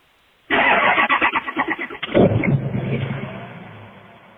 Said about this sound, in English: Diesel. That's a power stroke. Yeah. I can tell by the Ford starter noise. Was that it? Kind of far away.